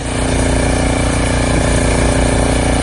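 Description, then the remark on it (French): A gasoline snowblower engine runs steadily, a loud, rough mechanical drone with a fast low chugging pulse and a buzzy hum layered on top, holding the same pitch throughout. “D'habitude, une souffleuse à essence, ça fait ce son-là.”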